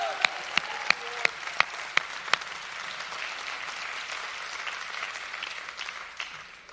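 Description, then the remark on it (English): A large group claps hands and shouts unto God in sustained, dense applause, with a run of sharp, evenly spaced louder claps near the start; faint voices may rise within the clapping before it slowly thins out. “I'm going to ask you in sealing this to clap your hands and shout unto God with a voice of triumph right now.”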